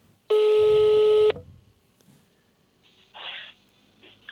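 A telephone call being placed: one loud, steady electronic tone lasting about a second, then near quiet with a faint click and a brief soft hissy burst. No one speaks.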